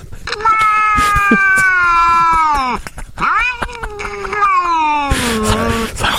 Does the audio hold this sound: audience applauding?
no